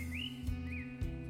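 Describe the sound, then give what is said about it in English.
A small bird sings two short, clear whistled notes, fairly faint, over a steady low hum, with two soft thumps in between. “I want to be able to look out the window and hopefully hear a little bird singing right at the end.”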